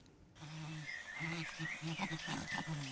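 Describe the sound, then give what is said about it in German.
Wild chimpanzees call out in a rainforest in Tanzania, a series of short, rhythmic hooting bursts over a steady buzz of insects and birds, as young chimpanzees chase each other around and up the trees, in a video from the Jane Goodall Institute. “Ein Affenbaby kuschelt sich ans Muttertier, Jungaffen jagen sich gegenseitig um und auf die Bäume, wildes Schimpansenleben, weit weg von Basel im Regenwald von Tansania.”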